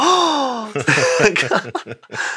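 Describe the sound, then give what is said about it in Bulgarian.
A single voice imitates a huge crowd's gasp, reacting to a man dropping the item he was slowly unveiling in front of them, with a drawn-out, sliding "ooh" lasting under a second, followed by quick choppy vocal bursts, fairly loud. “Мисля, че не, обаче просто чуваш цялата тълпа как е”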